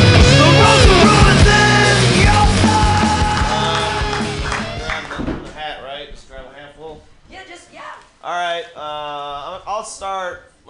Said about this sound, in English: He's gonna do a big long set for us. Everybody, clap your hands together for